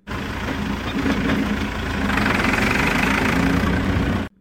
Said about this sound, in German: Sie haben recht abgelegen gewohnt. Wir sind dort mit dem Traktor ein bisschen rumgefahren, einen recht alten Traktor. Und so hat das tönt.